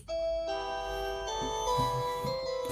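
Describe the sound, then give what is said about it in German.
A standard office desk phone rings with a steady electronic trill, bright stacked tones shifting in pitch across a few pulses, with low murmuring underneath. “Das ist aber eine oh traurige Gott, das ist hier Standard Siemens Telefon, keine Ahnung, ey, Panasonic.”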